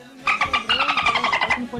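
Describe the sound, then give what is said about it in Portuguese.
A voice imitates a dolphin, letting out a rapid string of about ten high, squeaky chirps in a quick chattering rhythm, fairly loud and with no other talking. “Barro que teve de golfinho agora foi brincadeira, pai.”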